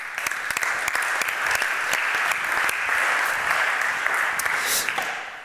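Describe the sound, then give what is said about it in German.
An audience claps steadily for several seconds, a dense wash of many hands with sharp individual claps standing out, sustained before tapering off at the end. “Applaus für ihn.”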